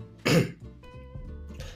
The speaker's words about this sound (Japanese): ただあの本編でもそうなんですけど喋あんま喋ってへんかったんで喋ると咳が出るみたいな